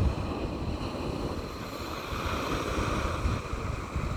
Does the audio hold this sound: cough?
no